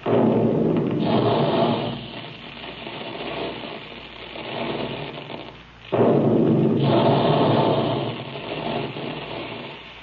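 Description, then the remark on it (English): Loud industrial roaring from the big cereal puffing guns in the Quaker plant making puffed wheat and puffed rice, with a sudden forceful blast-like burst partway through and heavy, sustained machine rumble surrounding it, with no voices. “That's the way the big guns in the Quaker plant sound when they're making puffed wheat and puffed rice.”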